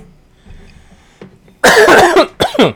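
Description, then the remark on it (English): A loud cough burst begins after a quiet stretch, followed by a second shorter cough a moment later, both harsh and raspy with no talking. “I was trying not to cough and shit, but I was trying to be a badass.”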